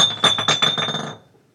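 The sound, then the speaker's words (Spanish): A glass bottle drops and clatters, giving a quick series of bright, ringing clinks that bounce and fade over about a second, with no voices. “ya ves, empezaste a hablar de este, brujería, güey, y se, cayó. una botella.”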